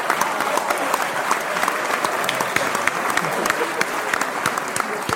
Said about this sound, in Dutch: Dus zonder het lachen, let alleen even op het applaus.